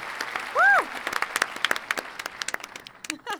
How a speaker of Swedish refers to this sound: Stort tack. Ja. En applåd.